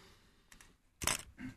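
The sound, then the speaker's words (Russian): A few quick, crisp paper rustles of newspaper pages being flipped over: two light swishes, then a louder, fuller flip and a softer one after it, with no talking. “Ты видишь, да, я вот так вот раз, да, и у меня на каждой странице своя газета.”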